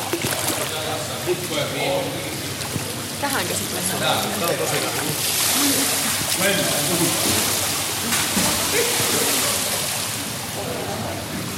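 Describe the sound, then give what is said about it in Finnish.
Steady splashing and lapping of hot water in a pool, a continuous wash of sound with voices talking over it. “Ei tää on tämmönen kuuma vesi olla, ihanaa.”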